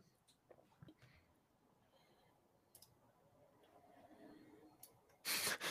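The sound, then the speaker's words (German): A small plastic LEGO piece drops and clatters, a few light, sharp clicks scattered over several seconds, ending with a louder burst of rustling contact noise. “Chat wird gerade geschrieben, dir ist ein Teil runtergefallen. Ja, ich habe eben gehört, irgendwas hat, hat geklackert.”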